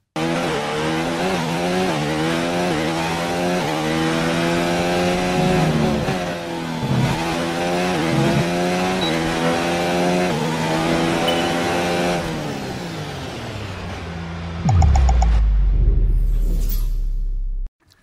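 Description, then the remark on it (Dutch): Max Verstappen's Formula 1 car in the Virtual GP in China, a virtual race: the engine screams at high revs, its whining pitch climbing and dropping repeatedly through gear shifts, before collapsing into a deep, loud rumble near the end. No one speaks. “Hij zit vol in de virtual GP en dat ziet er zo uit.”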